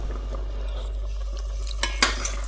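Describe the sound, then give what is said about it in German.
Sauce being tossed and warmed in a frying pan with butter or olive oil: a steady, soft sizzling hiss with faint scraping, broken by two or three brief metallic clinks toward the end. No one speaks. “Die andere Möglichkeit ist, das äh, mit was, was wollte ich sagen, mit ähm, Butter oder Olivenöl in der Pfanne anzuschwenken und warm zu machen.”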